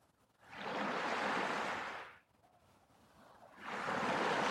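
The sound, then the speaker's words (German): Ocean waves surge onto a beach in two broad, hissing swells, the first rising and fading over a couple of seconds before a quieter lull and a second wave building again. “Du hörst dem Rauschen zu und schaust in die Weite.”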